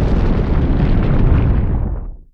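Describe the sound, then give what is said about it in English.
A deep, continuous rumble, made from thunder slowed way down with its high frequencies rolled off, roars steadily for about two seconds, heavy in the low end with muffled upper tones, then fades out quickly at the end. No voices are present. “Ben used deep low frequency rumbles for the sound. He got it from a few places, including thunder, slowed way down, with all of its high frequencies rolled off.”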